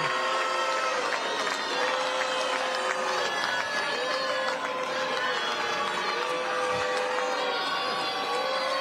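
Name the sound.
crowd booing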